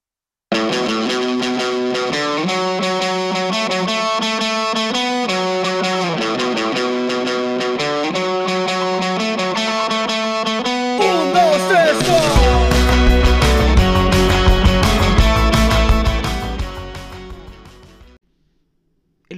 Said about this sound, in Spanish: pedacito de canción que acabamos de escuchar es la cortina de este programa